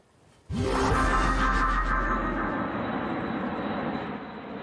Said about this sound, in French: Ballet d'avions pour un parachutage de 600 militaires français et leurs équipements dans le sud de la France à Castres. Un exercice jamais vu en 30 ans, ces paras se préparent à un conflit dur et violent.